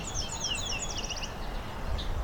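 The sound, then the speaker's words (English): A song sparrow sings one high, bright phrase, a few slurred whistled notes running into a quick trill. A steady low rumble of background noise continues beneath it. “song sparrow.”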